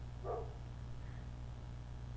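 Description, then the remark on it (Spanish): One short, muffled bark from a dog that is running away sounds early on, over a steady low hum; the rest is quiet background with no talking. “Bueno, está huyendo el perro.”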